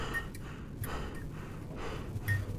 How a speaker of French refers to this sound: … n'arrivait plus à maîtriser sa respiration et il haletait la bouche grande ouverte